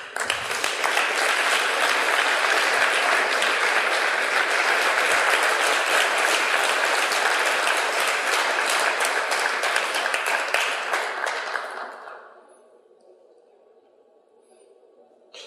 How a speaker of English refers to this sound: So, folks, please welcome them with a warm round of applause as these folks come forward to offer a few blessings.